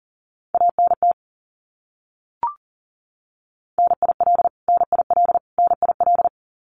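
Rapid Morse code beeps at 40 words per minute sending abbreviations, each repeated three times, in a steady mid-pitched tone, keyed fast in three bursts of dots and dashes with short gaps between, plus a single brief click in the pause; no voices.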